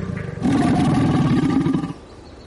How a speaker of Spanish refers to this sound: Este es un caimán americano de 4,10 metros. Los más grandes miden 4,30 metros.